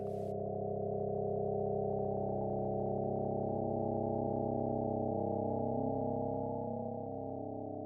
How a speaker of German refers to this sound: Die Änderungen der elektrischen Spannung lassen sich mit feinsten Elektroden in Töne übersetzen.